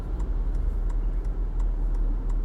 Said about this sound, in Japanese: ウインカーが戻ろうとする音カチッってきますね